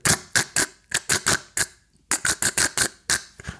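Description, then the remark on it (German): A voice imitates a line straining under tension where it has wrapped around a boat: a run of short, creaky clicking bursts in two quick groups separated by a brief pause, fairly loud. “Dann hängt man wieder drin in der Leine, aber man hört die Spannung der Leine am Boot, weil die, die Leine sich um das Boot gelegt hat und man hört so ein”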